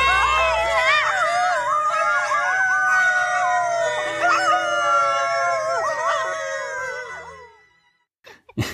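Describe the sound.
Several voices, characters acting like dogs, howl together like sad dogs, long wavering cries rising and falling for about seven seconds, loud, before fading out with a brief noise at the end.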